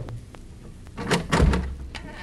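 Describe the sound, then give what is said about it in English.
A few light clicks and a rattle at a door handle, then a heavier clunk and low scraping thud as the door is pushed open, with no voices. “Try the door.”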